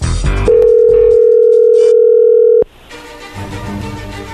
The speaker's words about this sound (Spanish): Le va a llamar el lobo, ya entró ahí la llamada, no haga ruido.